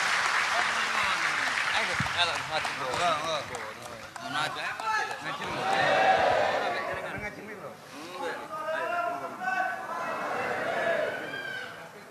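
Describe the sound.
A crowd at an event applauds steadily for about twelve seconds, welcoming an invited speaker, a dense wash of clapping that swells midway, with scattered voices and chatter mixed in underneath.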